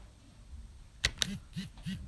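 Two quick clicks as a left arrow and space 1 key combination is pressed and released, then a device vibrates three times in short, evenly spaced buzzes, showing nothing is connected or paired. The buzzes are fairly quiet against a faint background hiss.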